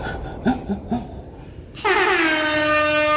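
A jingle: a few short, choppy sound bursts give way to a loud, sustained air horn blast that holds for over a second with a slightly falling pitch, dominant.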